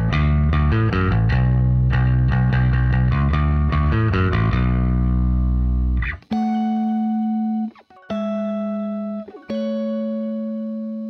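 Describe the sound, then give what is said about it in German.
Gritty bass guitar played through a small distortion pedal in a song's chorus: a busy run of driving, rhythmic notes, then a few long sustained tones separated by brief gaps. No one speaks. “Die Strophe ist halt so ein bisschen palm muted gespielt, damit es so ein bisschen näher und intimer klingt und im Refrain eine kleine Zerre reingetreten.”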